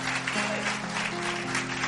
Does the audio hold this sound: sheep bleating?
no